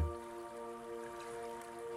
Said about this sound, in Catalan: Escoltes el so de l'aigua que t'aporta una sensació de frescor i de benestar.